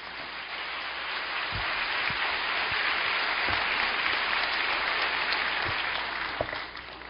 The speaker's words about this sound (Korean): 말씀 전하실 때 우리 따뜻한 격려와 사랑의 박수로 축복합니다.